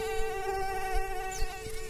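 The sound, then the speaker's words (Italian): A fly buzzes steadily, a continuous droning whine that holds an even pitch for a couple of seconds, with no talking. “E da qui per l'appunto nasce la specie di mosca cavallina.”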